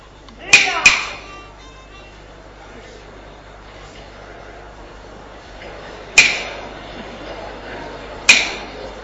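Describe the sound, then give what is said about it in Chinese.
Sharp knocks on a door, made by a servant ordered by his master to go up and knock: a quick pair, a pause of several seconds, then two more single raps, each crisp and bright over a faint steady background hiss. “来人，来，上前叩门。”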